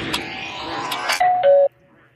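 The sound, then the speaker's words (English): A two-note doorbell chime, high then lower, rings out clearly at the end of a short, busy musical jingle with sharp percussive hits, then fades into near silence. “yes, the door the doorbell had to go in after you guys last week absolutely losing the plot over the doorbell.”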